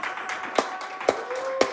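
Sparse applause: three sharp, evenly spaced claps about half a second apart, over a faint steady background tone with a soft wash of noise.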